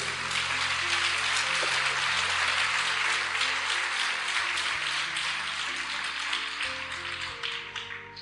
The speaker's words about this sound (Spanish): ¿Cuántos dicen amén? Aleluya. Dele fuerte ese aplauso a Cristo.